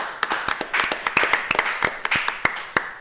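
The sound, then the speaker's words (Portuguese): A round of applause for the Lord Jesus from a group, with many sharp hand claps overlapping in a steady, lively patter over a brief few seconds, moderately loud. “Uma salva de palmas ao Senhor Jesus.”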